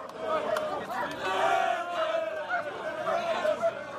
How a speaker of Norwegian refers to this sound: Engelske fotballsupportere har inntatt Marseille, og da blir det bråk. Stoler og ølglass flyr gjennom luften, og fransk politi svarer med tåregass og batonger.